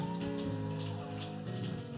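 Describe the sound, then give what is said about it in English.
A crowd at a church service claps hands steadily to celebrate God, a dense, even patter like rain, over sustained musical tones that hold throughout. “Just keep clapping and celebrate God.”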